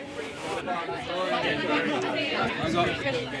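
Dense, overlapping crowd chatter fills a busy bar, many indistinct voices murmuring and laughing at a steady, loud level with no single speaker standing out.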